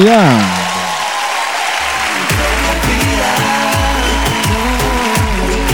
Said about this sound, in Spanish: Nada, un aplauso